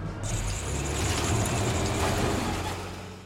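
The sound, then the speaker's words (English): A vehicle engine runs with a steady, rumbling drone and a broad rush of noise that swells slightly louder through the middle before easing off, with no voices present. “Primary engine running? Check. Navigation system? Online. Let's punch this baby.”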